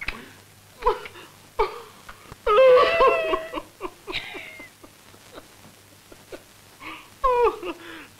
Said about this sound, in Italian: non fate così, state buona, via, signora. Ah, non è niente, non è niente, piange, c'è pericolo soltanto quando ride.